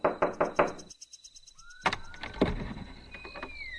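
impact, knocking on a door

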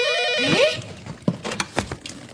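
household object, telephone ringing

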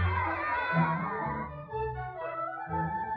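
crowd, villagers cheering

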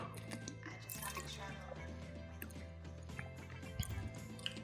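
food or drink, drinking water

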